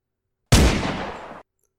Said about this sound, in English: Another gunshot! Stop firing, you fool! Someone shouted.